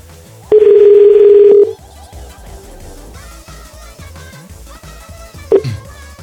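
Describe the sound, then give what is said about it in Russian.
A loud, steady telephone dial tone sounds for about a second, then stops as someone dials a number on a phone. Soft background music continues, and a short electronic beep of dialing follows near the end. “С вами тут фиг что наберешь, реально. У меня телефон стоит справа от меня, я должен одной рукой держать это, другое то, коситься на, на номер.”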